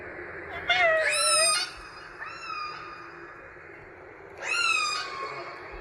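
Orca calls: two loud, rising-and-falling harmonic squeals with a fainter one between them, all over a steady background hiss, with no talking.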